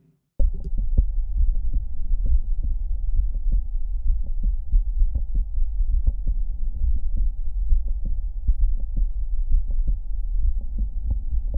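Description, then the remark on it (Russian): Heart sounds with a mid-systolic click heard by stethoscope at the heart apex, patient lying on the left side: steady, rhythmic low thumps, each cycle with a short sharp click, over a constant low rumble and faint steady hum. No voices. “Следующий средний систолический щелчок, аускультация на верхушке сердца, положение на левом боку.”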